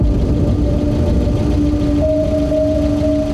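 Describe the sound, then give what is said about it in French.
A car engine idles steadily, a continuous low rumble with a faint droning hum layered on top, holding constant throughout with no voices present. “Et un matin, elle a retrouvé mort dans le garage, le moteur de sa voiture allumé.”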